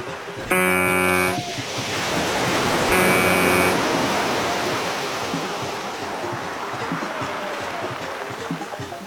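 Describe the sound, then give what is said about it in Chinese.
Two loud, brassy ship horn blasts, the first longer than the second, sound over a steady rushing wash of ocean waves that continues alone after the horns stop. “装冰的箱子先上了轮船”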